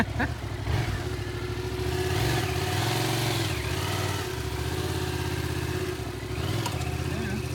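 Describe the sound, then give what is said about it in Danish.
A new motorcycle's engine revs, its pitch climbing and dropping in throaty surges, then settles into a steady, loud drone as it pulls away. “Får lige en ny motorcykel at køre på.”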